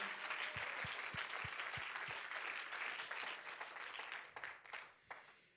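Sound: audience clapping hands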